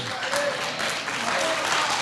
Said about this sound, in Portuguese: Deus é conosco, aplauda Ele. Se é para Ele, faz com vontade.